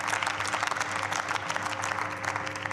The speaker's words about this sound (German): Applaus